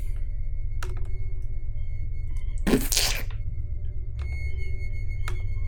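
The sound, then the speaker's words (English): A door shuts once with a short, fairly loud thud and clatter midway through, set against a steady low electrical hum and a few faint ticking clicks. “A door close.”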